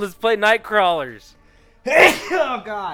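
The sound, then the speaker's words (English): A single sharp sneeze, caused by smoke from wildfires, bursts out after a brief pause in conversation, with people talking just before and immediately after it. “My state's on fire right now, so I've been sneezing all day with all the smoke.”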